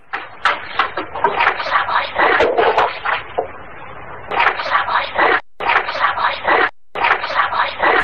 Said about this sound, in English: You'll hear what sounds like a lot of banging, and then a whispered voice comes on that banging is actually just the old stairs creaking because the recorder was sitting on the stairs.